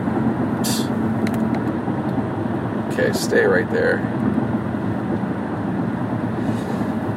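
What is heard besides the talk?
road traffic passing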